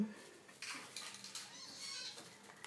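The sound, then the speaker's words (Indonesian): A pot of spaghetti boiling on a stove in water with oil added, giving a steady, hissy wash of boiling water with occasional clinks, at a moderate level. “Ma, masaknya adalah spaghetti bolognese the most standard pasta thing I can make ini aku lagi ngerebus nya”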